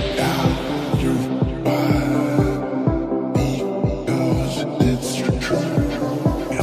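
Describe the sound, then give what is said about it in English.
A loud electronic dance track pumps steadily, driven by a thumping four-on-the-floor kick drum under dense buzzing synths, with no voices. “all while dating celebrities and starting a record label to release his own EDM track.”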